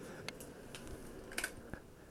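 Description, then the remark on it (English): A mini space heater runs quietly in a room with a faint, steady fan-like hiss and a few sharp clicks and ticks scattered through it, with no one talking. “That was my mini heater I have in my room that, that I would put to my uh, uh, what you call it, my resin so it would heat up my resin, keep my resin heated and everything.”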